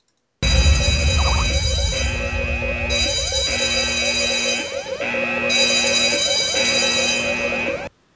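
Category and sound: sound effect, alarm sound effect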